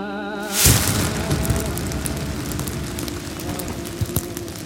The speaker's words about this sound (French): C'était un soir de printemps de 1949. J'étais dans la salle de bain, quand une explosion cent fois plus forte et plus effrayante que tous les coups de tonnerre jamais entendus secoua notre maison.